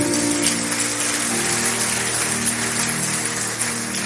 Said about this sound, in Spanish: ¿Alguien puede darle un fuerte aplauso a nuestro Dios? Oh sí.